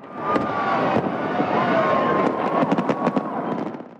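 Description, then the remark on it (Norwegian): Fireworks pop and crackle in the sky at midnight on New Year's Eve over a steady, dense outdoor rumble, with a faint whistling tone early on and a quick flurry of sharp bangs near the end. “Å se fyrverkeriet på himmelen og gi klemmer til gode venner.”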